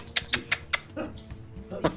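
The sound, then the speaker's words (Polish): A dog named Molly whimpers and yips as she is being let out, four quick high-pitched yelps in a steady rhythm followed by softer whining and one more sharp yip near the end. “Wypuszczę tylko psa.”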